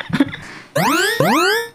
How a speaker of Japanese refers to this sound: あこれとかねあれね、そのアラームみたいなんていうんです緊急時代の音みたいなのはすごい嫌な音が多いからみたいなそれで起きたらダメダメダメ地震のねあの速報かと思ったら違ったみたいな